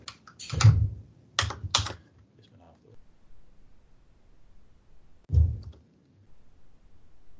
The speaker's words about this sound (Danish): Man taster et øh, resultat, altså overskud eller underskud.